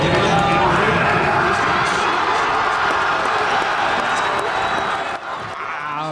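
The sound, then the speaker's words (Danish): A packed bar of football fans in Aarhus, Denmark, roars and cheers continuously, a dense wall of shouting voices with scattered clapping, loud throughout, dipping slightly near the end. “Ja, det her det er jo lidt øh, lyd fra en øh, bar i Aarhus, øh, der slutflotte lød og var en realitet”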